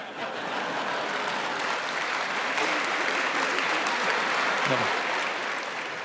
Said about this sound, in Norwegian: Ja, God applaus der for eh, Jens Stoltenberg.